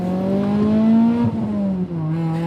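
A car engine hums loudly and steadily, its pitch rising slightly and then dipping a couple of times as a woman drives off in her car. There are no voices.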